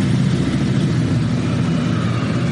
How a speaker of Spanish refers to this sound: Os dejamos porque se eh, nos, está pasando una concentración de motos ahora mismo que...